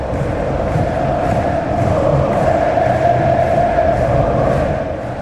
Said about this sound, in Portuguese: Falta para o Palmeiras, falta perigosa, a torcida do Palmeiras inflama no Allianz Parque.